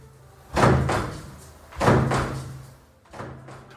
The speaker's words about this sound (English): At which point, we're going to need a revolving door sound effect.